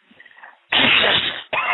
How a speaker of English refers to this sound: just take a deep cough and just go